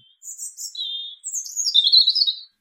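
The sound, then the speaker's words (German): A European robin sings a short, clear phrase of high, thin warbling notes, tumbling and twittering in quick succession before stopping, heard alone with no other sounds. “Und da gehört das Rotkehlchen dazu.”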